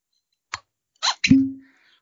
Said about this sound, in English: I, I, can't tell you what was making the squeak noise, but it was a whiskey bottle that thumped.